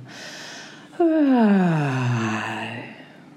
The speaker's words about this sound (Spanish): Martina dio un largo bostezo y le llegó el sueño